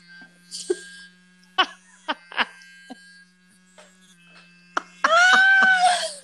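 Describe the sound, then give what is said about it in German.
An electric toothbrush switches on and buzzes loudly for about a second at the end, after a few scattered clicks and handling noises over a low steady hum. “es ist eine Zahnbürste.”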